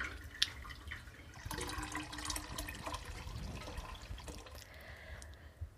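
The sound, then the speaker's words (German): Wort pours steadily over the malt through a filter for several seconds during the second lautering in home brewing, a continuous splashing and trickling with occasional drips, no voices present. “Also dann gießen wir das Ganze noch einmal drüber.”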